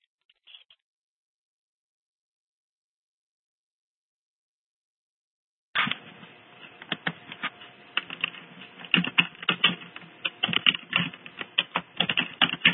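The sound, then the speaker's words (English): After several seconds of near silence, rapid computer keyboard typing begins and continues steadily, a dense run of irregular key clicks with no voices. “I hear somebody typing, but that doesn't make any sense to me.”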